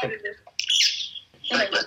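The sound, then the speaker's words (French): Bright, high-pitched bird chirps ring out in short bursts outdoors, almost in the countryside, clear, with a brief stretch of talking mixed in around them. “qu'il y ait des oiseaux autour de moi”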